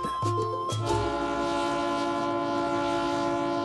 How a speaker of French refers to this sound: Au Pérou, il existe un train fantastique. Un train qui part de Lima, la capitale, et qui gravit la cordillère des Andes.